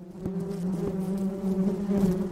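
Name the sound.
bees buzzing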